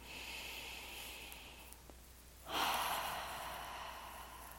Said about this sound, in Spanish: Y para eso vamos a llevar nuestra atención al corazón y vamos a poner nuestra mano en el corazón. Y con nuestra mano en el corazón vamos a tener otra respiración profunda.